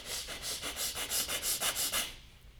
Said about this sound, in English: Look inside the chest and start breathing playfully and gently, quick and a fast breath.